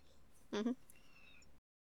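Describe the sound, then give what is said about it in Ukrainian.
A single short cat meow, quick and fairly loud with a slight two-part wobble, rising out of a quiet background hiss before fading to silence. “Неправдиво або несправедливо описати особу цього пана котика.”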